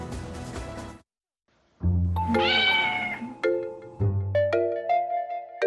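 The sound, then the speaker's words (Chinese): A cat at a cat workspace in Kagoshima, Japan, where people experience being disturbed by cats, meows loudly in drawn-out, wavering cries, one long yowl followed by another after a short pause, preceded by a brief burst of rustling noise and a moment of silence. “在日本鹿儿岛呢，有业者就开设了猫咪爱事工作区，让民众可以先体验被猫咪妨碍的感觉，做好领养猫咪的心理准备。”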